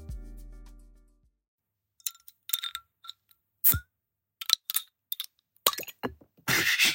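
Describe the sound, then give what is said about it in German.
Glass beer bottles clink together in a quick, irregular string of sharp taps, ending in a breathy hiss as a beer bottle is opened. No one speaks. “Zum Wohl, es gibt ein Bier von mir, ich habe gerade noch ein bisschen da”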